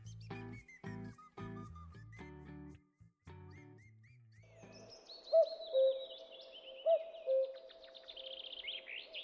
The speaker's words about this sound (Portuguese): Olá, você está ouvindo o Sabiati Cast, ao toque de dois cucos